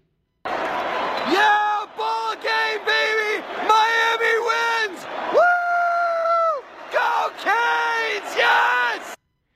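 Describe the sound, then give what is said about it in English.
A fan screams loud in a series of sustained, raw yells, one long held shout in the middle, over the dense roar of a packed stadium crowd right as the game ends in victory. “I actually have a video I posted on Twitter of me screaming at the game right when it ended”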